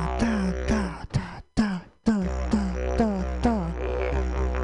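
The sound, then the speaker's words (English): A loud heartbeat thumps in a steady rhythm of repeated beats over a constant low hum, with brief gaps between some beats and no one talking. “It sounds like a heartbeat.”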